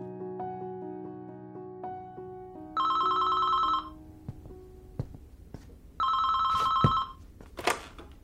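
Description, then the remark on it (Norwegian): A telephone rings in two bursts, each about a second long with a pause between, bright and fairly loud over a quiet background of soft tones and faint clicks; an incoming call around seven on a Saturday evening. “Det begynte jo med at jeg fikk en telefon ifra ei som heter Grete Natalie Storm Johansen klokka sju en eh, lørdagskveld.”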